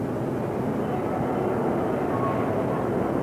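A canal lock gate on the Tietê River at the Barra Bonita dam rising open as the boat enters the lock: a steady, heavy mechanical rumble and drone that holds at an even loudness throughout, with a faint thin whine briefly surfacing partway through.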